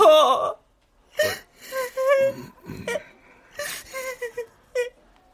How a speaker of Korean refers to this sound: 전혀 기대한 적은 없지만 그 눈물이 의외의 효과를 냈다. 내가 갑자기 숨을 헉헉거리며 줄줄 눈물만 쏟아내고 있자 담임 선생이 약간 놀란 듯한 기색으로 그런 나를 올려보았다.